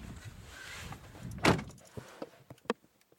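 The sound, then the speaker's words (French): Someone leaves home at 8:30 on 4 February 2020 and climbs into their car with soft rustling, then the car door slams shut with one solid thud, followed by a few small clicks and knocks inside the quiet cabin. “On est le 4 février 2020, je sors de chez moi, il est 8h30, euh, je rentre dans ma voiture pour aller voir mon premier client.”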